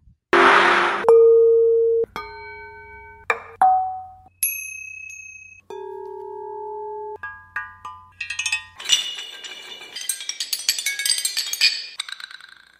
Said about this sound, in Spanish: En este segundo ejemplo, el artista ha usado varios elementos, ollas, tapas, madera, platos, bloques y pedazos de cerámica para crear melodías.